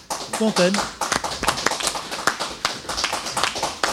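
An audience breaks into applause, a dense, steady patter of many hands clapping for the full stretch, with a brief vocal sound rising near the start.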